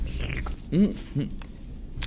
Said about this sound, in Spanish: un sorbito.